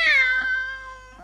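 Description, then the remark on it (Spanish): A single drawn-out cat meow, loud, starting high and sliding gradually lower in pitch before trailing off, with no other sounds around it. “Un gato que maulló.”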